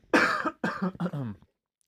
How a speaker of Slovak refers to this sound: Ospravedlňujem sa. Nemáš za čo. Za tieto kašliky.